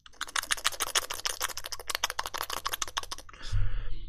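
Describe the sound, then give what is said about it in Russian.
A rapid flurry of wet little clicks made by pinching a cheek between the index finger and thumb and pulling it, crackling steadily for about three seconds before a brief, softer murmur takes over. “А, берется как эм, щепотка двумя пальцами, указательным и большим за щеку, Просто вот прямо оттягиваете щеку, как жирец у себя на брюхе.”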